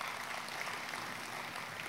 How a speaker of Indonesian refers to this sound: Kita kasih tepuk tangannya yang meriah buat Tuhan kita.